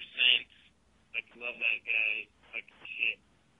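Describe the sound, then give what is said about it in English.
A voice on a phone call comes through harsh and band-limited, crackly and tinny like a walkie-talkie, speaking in short choppy bursts with brief gaps between them. “Can't call in on a walkie-talkie.”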